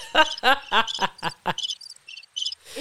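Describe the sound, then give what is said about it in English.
A rhythmic cricket chirping sound effect played from a sound pad, a string of short high-pitched trilling pulses, follows a few louder voice-like bursts at the start. It's clear, then fades into a soft rustle. “we we gonna figure out these dang sound pads. not the cricket.”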